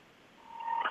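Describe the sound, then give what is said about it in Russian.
A single steady electronic telephone beep as a listener's call is connected to the studio, swelling from faint to moderately loud before ending in a brief crackle, with no voices. “нам вот сейчас э, звонит. Я попрошу студию включить ее.”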